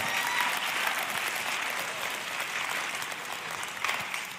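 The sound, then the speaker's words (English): A large church audience claps steadily, a dense wash of applause at a consistent level from start to finish, with no voices standing out. “I'm telling you that she deserves a round of applause from this church.”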